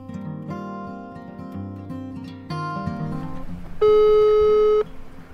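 A telephone ringback tone on a call to Mandebo Camping: one steady, fairly loud electronic tone lasting about a second, preceded by sustained melodic tones. No one speaks.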